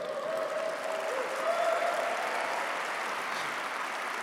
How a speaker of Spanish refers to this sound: Oh, dale un fuerte aplauso.